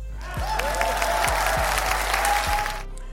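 A burst of audience applause for the state of California and Gavin Newsom for signing a law, a dense crackle of many hands clapping that swells quickly, holds steady for a couple of seconds, then cuts off abruptly.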